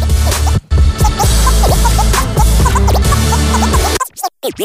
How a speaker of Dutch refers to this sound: Hey bros, laten we gewoon in de muziek luisteren.